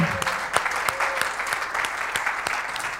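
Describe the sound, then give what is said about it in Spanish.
A crowd claps steadily and enthusiastically as a clap offering to God, a dense wash of many hands with sharper individual claps popping out, sustained throughout at moderate loudness with no talking. “Can we give the best clap offering unto God?”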